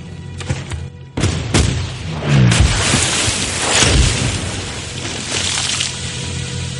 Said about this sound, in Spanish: La Acheron abre fuego de nuevo.